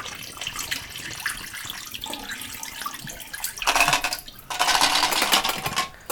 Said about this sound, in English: Ah, we got ten minutes, and let's dump out the pre-soak and dump in the dev.